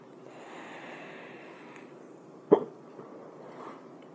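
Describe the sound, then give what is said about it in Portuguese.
A single sharp hiccup from a man hiccuping while smoking pops out near the middle, short, over a quiet background hiss with faint breathing and no talking. “Cara, eu dei soluço enquanto eu tô fumando.”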